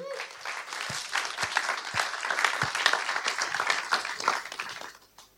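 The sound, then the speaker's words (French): An audience in Geneva applauds steadily for about five seconds, a dense wash of many hands clapping with a few sharper individual claps standing out, fading away at the end. “Un peu, on peut l'applaudir, c'est courageux.”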